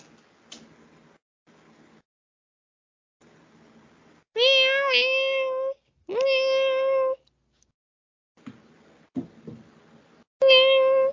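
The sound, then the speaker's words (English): Three drawn-out, high-pitched kitten meows ring out loud, separated by pauses filled with faint rustling and soft clicks, with no talking; the kittens are in a box. “Yeah, cute little kittens.”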